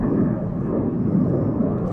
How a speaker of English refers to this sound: sorry, just a plane flying past. We're not far from the airport here.